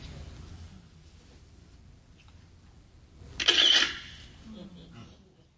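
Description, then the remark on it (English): A document camera pointed down at a page, triggered by pressing the space bar, gives a short, sharp mechanical click and whir lasting about half a second, fairly loud, standing out from a low, steady background hum as it starts to read. “Click, hum, long time. You're going to hear the camera make a camera noise, and you're going to see it start to read.”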